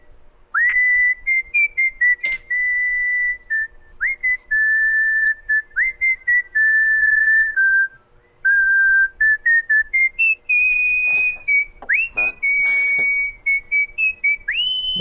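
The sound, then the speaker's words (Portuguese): A person whistles a long, warbling imitation of a birdsong, with steady high trills broken by short gaps and a few sharp upward slides near the end, with no talking. “Meteu um fancão do passarinho.”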